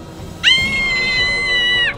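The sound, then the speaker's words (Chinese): One long, shrill scream held at a steady high pitch for about a second and a half, loud against a faint background hum; a performer's voice imitating a child screaming. “孩子一看到他，马上用双手捂着自己的眼睛，厉声尖叫。”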